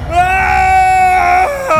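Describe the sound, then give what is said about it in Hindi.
A station master's loud, shrill scream of fright, held steadily for over a second, breaking off and followed by a brief second cry, alone with no talking. “सामने का दृश्य देखकर स्टेशन मास्टर की चीख निकल गई”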